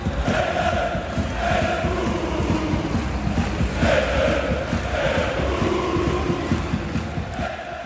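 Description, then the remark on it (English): A large crowd of fans chants together in the stands, a loud, steady roar of many voices with swelling sung phrases and a rough, windy wash underneath, continuing throughout. “in March, don't be surprised to hear a familiar chant coming from the stands.”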